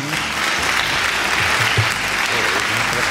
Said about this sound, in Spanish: Qué bueno, un aplauso por favor.